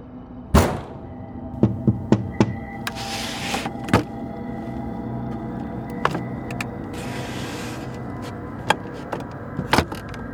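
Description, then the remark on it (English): A door bangs and rattles in irregular bursts, sharp heavy knocks scattered over a low rumbling background, with two longer stretches of shaking rattle. No one speaks. “The door shook again, and I pictured the man with the too wide smile outside.”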